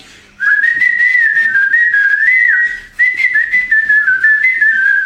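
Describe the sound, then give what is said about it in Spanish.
A person whistles a lilting song melody, a whistled demo of a heavy metal song, loud, in two continuous phrases with a brief breath between them, the tune wavering up and down with no talking. “escucha la maqueta silbada y dice, era una canción payasesca cuando vos la escuchabas, ponete, la a silbar y empieza”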